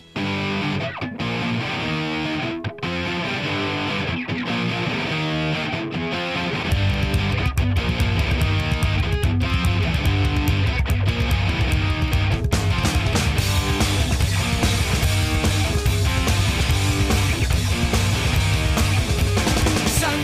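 A loud, distorted punk hardcore track released in 2011: dense, gritty guitars open alone, then heavy drums and bass crash in around seven seconds, driving at a fast, relentless pace with no vocals audible.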